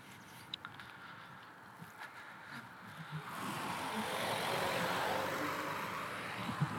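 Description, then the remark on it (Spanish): A car swells past on a street, its broad rushing noise rising after a few seconds of quieter ambience with faint footsteps and small clicks, then holding steady. No one speaks. “Aquí también pasan autos.”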